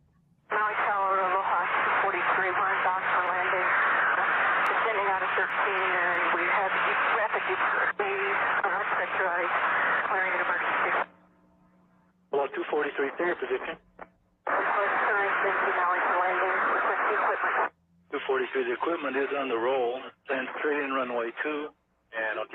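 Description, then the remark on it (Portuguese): A tinny, band-limited cockpit-to-control-tower radio transmission of a man speaking during a depressurization emergency, with steady static hiss and a low hum underneath, broken into several bursts separated by brief silent gaps. “mas o que vocês vão escutar é que o controlador da torre pergunta se vai precisar realmente de bombeiros de, e ela fala que está em emergência, que houve a despressurização, além do chiado de fundo que a gente observa que estava difícil falar.”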